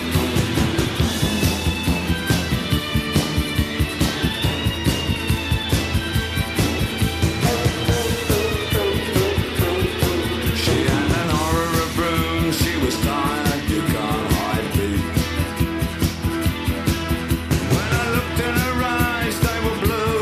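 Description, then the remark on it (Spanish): A loud, dense rock song with driving drums and distorted guitars, a raw, shrieking lead vocal wailing over the full band for the whole stretch. “ahí están los alaridos.”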